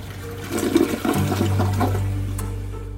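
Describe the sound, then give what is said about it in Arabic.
A prison toilet flushes, used by two prisoners to get rid of excess dug-out dirt: a loud, gurgling rush of water that settles into a steady, low draining whoosh for a few seconds. No one speaks. “السجينان يتخلصان من التراب الزائد بإلقائه على فترات في المرحاض”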